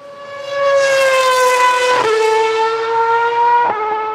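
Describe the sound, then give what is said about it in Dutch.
A naturally aspirated 830 hp V8 racing engine, revving up to 18,000 rpm, screams at high revs, its harmonic whine gliding slowly downward with two brief dips where it shifts gears, loud and steady without any talking. “Want dit is nog die atmosferische V8 met 830 pk.”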